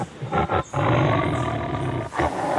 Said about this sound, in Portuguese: Enquanto caminhava pela área, admirando as diferentes frutas e legumes que haviam sido plantados, ah, fui subitamente sobressaltado por um rugido alto.